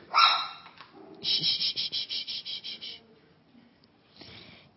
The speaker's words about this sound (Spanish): Ok. Está Zulia Mari aquí ladrando.